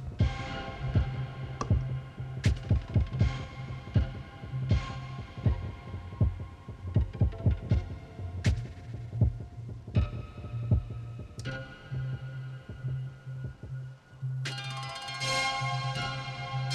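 A synthesizer patch made for the radio station KSER plays alone, with a deep throbbing bass pulse under a steady rhythm of clicky, percussive hits and sustained tones, turning brighter and fuller near the end.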